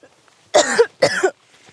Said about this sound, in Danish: så prøver man at holde den tilbage, sådan, du skal ikke hoste. Mm. Så mhm. kommer den endnu mere galt i halsen.